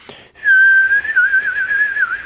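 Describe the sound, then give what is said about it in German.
A person imitates someone's lisping whistle, whistling one sustained, slightly wavering note for about two seconds, fairly loud, with a buzzy, rattling edge as if spitting through the lips. No one talks. “Kennst du die Leute, die so pfiffen und dann schallert so beim Pfiffen?”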